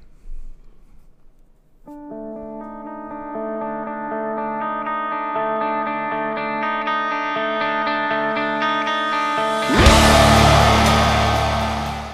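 The opening track of a band's 2019 metalcore album begins with a brief quiet moment, then layered sustained tones swell steadily before the track crashes into a loud, distorted full-band section near the end. No one speaks.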